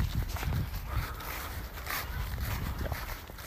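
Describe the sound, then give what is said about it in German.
Quick, uneven thuds of feet as people run across the ground, steady over a few seconds, with a rustle of clothing and outdoor background noise. “Komm. Wir rennen jetzt.”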